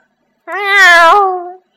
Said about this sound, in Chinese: 一声猫叫在屋外的草丛间响起。